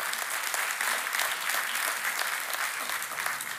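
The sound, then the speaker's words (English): An audience claps together in a dense, steady wash of applause lasting several seconds, many hands blending into an even, bright patter with no talking over it. They are clapping to the Lord for all of his goodness at a night service. “So, can we give a hand clap to the Lord for all of his goodness tonight?”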